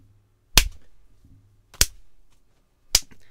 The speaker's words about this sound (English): I just slapped my wrist three times in penance.